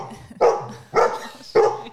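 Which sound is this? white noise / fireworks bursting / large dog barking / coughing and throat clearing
large dog barking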